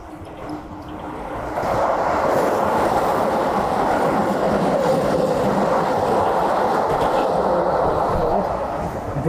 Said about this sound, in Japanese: 電車が入りますが、あ、もうちょっとでね、駅見えそうかなって感じなので、まあ、そうしたら、ちゃんと見ようかなと思いますが